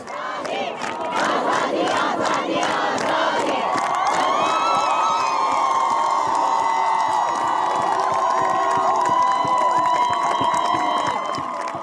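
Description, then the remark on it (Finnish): A large protest crowd in Iran shouting together, loud and sustained, with rising collective cries and whistling tones over a dense roar of many voices throughout. “tänä syksynä Iranissa on protestoitu.”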